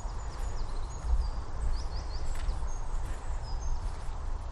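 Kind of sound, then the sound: bird, european robin singing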